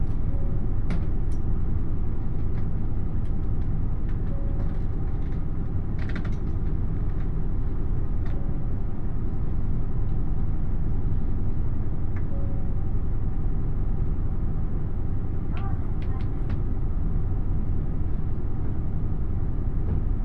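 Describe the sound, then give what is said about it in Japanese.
The limited express Nanpu No. 20 on the Dosan Line in Japan, between Oboke and Tadotsu and bound for Okayama, rumbles steadily as it pulls away and runs, with a continuous low roar, occasional clicks and rattles, and a faint tone, without any talking. “耳で楽しむ鉄道旅 土讃線 大歩危→多度津 特急南風20号”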